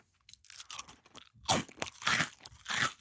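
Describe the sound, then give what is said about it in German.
Loud crunching of crunchy garlic bake rolls being chewed, with repeated bursts of brittle cracking in an uneven rhythm; no one speaks. “Ich rede normal und, und esse einen dabei.”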